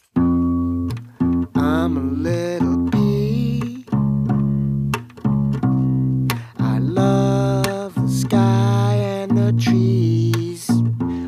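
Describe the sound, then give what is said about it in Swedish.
A rock song plays loudly, with the band's bass player singing melodic phrases over a deep, bass-heavy backing, the lines separated by brief pauses. “nu ska han få en liten skojlåt som ska komma som en interlude”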